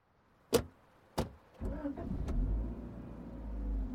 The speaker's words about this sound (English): Él manejó su carro con ella hasta un parque.